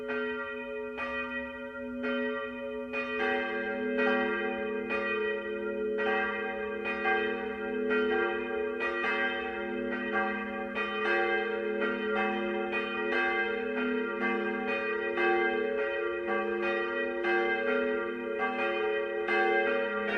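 Church bells ring in Christmas 2023, pealing continuously and overlapping, with repeated strikes layering into a rich, sustained drone of deep and bright tones. Steady and fairly loud throughout, with no voices.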